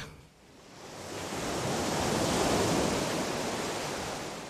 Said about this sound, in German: Das Rauschen vom Meer.